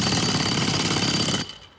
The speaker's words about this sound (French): de l'asphalte, du ciment du béton armé. Il n'y a rien qui résiste à un marteau-piqueur.